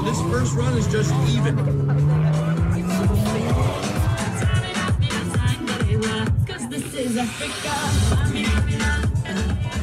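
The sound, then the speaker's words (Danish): A tuned car engine revs loudly, its pitch climbing steeply before settling into a rough, throaty roar with more revving bursts over steady background noise. “Der er hurtigste biler stadig, men der er altså også bare de her biler, der bliver, hvis motor bliver gejlet”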